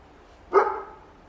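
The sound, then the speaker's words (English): A dog gives a single sharp, moderately loud bark that fades quickly into quiet, with no one talking. “The dog agrees.”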